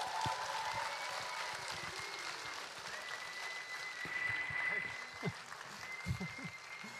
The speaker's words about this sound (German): Komm, ich gebe ihm mal einen mega Applaus für seine Coolness.